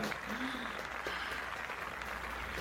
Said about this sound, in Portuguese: Bom dia, Verônica! Por favor, Palmas para Bom Dia Verônica.